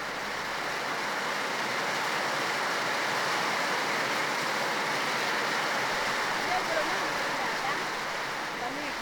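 Rain that has just begun to fall outdoors, a dense, even hiss of drops that holds at the same loud level for the whole stretch, with no breaks or distinct individual splashes.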